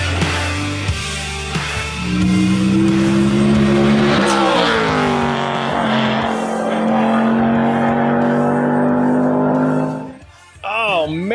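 Jimmy Ford's race car roars loud at the Pikes Peak International Hill Climb, revving up and shifting through gears for about ten seconds in a flyby through a corner, then drops off into a brief, wavering squeal of tires.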